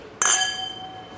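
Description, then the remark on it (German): A single bright clink of glasses of Pinotage red wine touching in a toast, clear, with a high ringing tone that fades slowly over a second. “Jawohl, zum Wohl. Cheers.”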